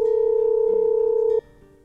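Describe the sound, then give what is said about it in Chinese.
A telephone dial tone hums as a steady, unbroken mid-pitched electronic tone for over a second while a phone call is being placed, then cuts off abruptly, leaving only a faint low murmur. No one speaks. “刘玉涵出门，陆泽磊拨通了一个电话。”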